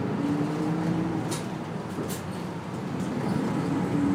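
Steady engine rumble inside a moving city bus in Hakata, Japan, a constant low drone with road hiss and a faint whining tone running through it, no voices present.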